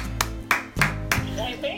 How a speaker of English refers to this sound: I mean, Wait, let's clap. Wait a minute. We in church.